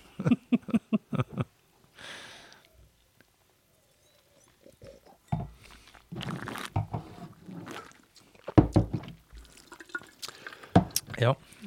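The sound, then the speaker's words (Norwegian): Wine being tasted and spat out: a series of wet slurps, sloshing and spits in short bursts, some sharp and loud, with brief pauses between them and faint murmuring voices at times. “Vi spytter vinden ut, bare sånn at ja, i tilfelle dere lurer på det.”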